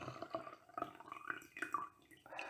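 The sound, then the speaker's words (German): Tea pours into a cup for a couple of seconds, a gentle trickle with small bubbling, splashing tones and a brief rise at the end as the flow changes. “Ich gieße dir erstmal schön, um etwas Ruhe reinzubringen, etwas Tee rein.”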